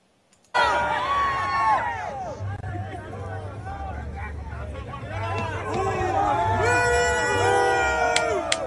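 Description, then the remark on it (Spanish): A large crowd cheers loudly and continuously at a welcome reception, with many overlapping shouts, whoops and high excited voices, played from a video shared on Twitter. The roar starts abruptly and holds steady for about eight seconds. “de la, del recibimiento que dieron aleaño.”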